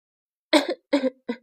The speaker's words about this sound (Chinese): 医生说这话的时候，达切斯呛了一口气，并咳嗽着